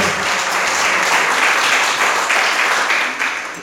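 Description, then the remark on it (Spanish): A crowd applauds the Lord at an evening religious gathering, a steady, dense, even wash of many hands clapping at once that holds strong throughout and eases off slightly at the end, with no voices on top. “Dice la Biblia que al que cree, denle un aplauso al Señor, por favor, esta noche.”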